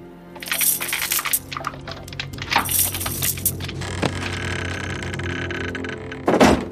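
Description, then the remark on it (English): A wooden trap door creaks and rattles as it is lowered and shut, with clattering knocks and scraping, then a loud, heavy thud near the end as it closes. No voices. “Ariz shuts the trap door and lays the rug on top of it.”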